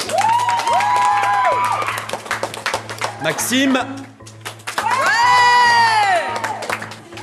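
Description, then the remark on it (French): A group of collège schoolchildren cheers and shouts loudly for a classmate picked to represent their school on Tuesday, with scattered clapping and high-pitched whoops rising and falling in two big bursts, while a voice briefly speaks between them. “on peut l'applaudir.”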